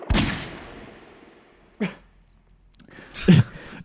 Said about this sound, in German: Ja, da huste ich doch zum Intro einmal kurz, weil ich mich verschluckt habe.